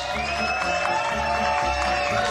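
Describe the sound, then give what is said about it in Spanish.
Steady applause from a crowd fills the whole moment, a dense wash of clapping layered over sustained musical tones and a thumping low beat, with no one speaking. “Sus aplausos, como los estamos haciendo rendir.”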